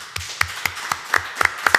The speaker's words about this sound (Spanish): Un aplauso para vosotros por aguantar la chapa.